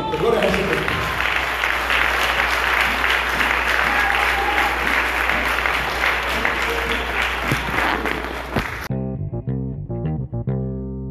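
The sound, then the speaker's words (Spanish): Loud, sustained applause from an audience, a dense crackle of many hands clapping for about nine seconds before it cuts off into a bright, steady musical tone. “Denle un fuerte aplauso a”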